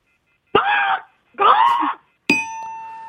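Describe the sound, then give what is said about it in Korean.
A person imitates an angry American crow with two harsh, loud, drawn-out caws, then a bright bell ding rings out and lingers. “빵 터질 수도 있으니까 자 미국 화난 예 앙글리 화난 미국 까마귀 들어보겠습니다.”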